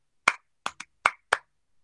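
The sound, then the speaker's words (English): Five soft hand claps from a teacher on a loud school playground, trying to gather second graders, in an uneven rhythm, the second and third coming quickly together, each short and muted with no voices around them. “You gave me a soft clap.”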